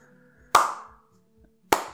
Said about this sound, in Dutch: Nou, dit waren de acht. Acht slow claps.